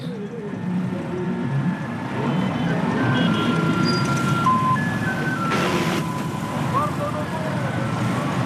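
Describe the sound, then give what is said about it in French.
Busy street traffic rumbles steadily all around a small square of ochre earth in Porto-Novo, with engines droning by, brief tonal horn and whine sounds cutting through, and faint background voices in the mix. “ce petit îlot de terre ocre, perdu au milieu des voitures”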